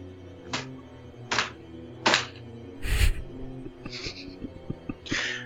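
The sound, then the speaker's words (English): A wooden shutter upstairs bangs repeatedly in strong wind at uneven intervals, about six sharp knocks with one heavier thud in the middle, over a low, steady rumbling background. “Outside, the wind was higher than ever, and the old man started nervously at the sound of a shutter banging upstairs.”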